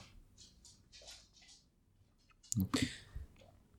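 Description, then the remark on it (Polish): A dog, Kapi, shuffles along dragging a soft cushion: faint intermittent rustles and scrapes, then a brief burst of louder thumping and scuffling near the end. No one speaks. “przyszła do mnie właśnie kapi z poduszką. Właśnie słychać.”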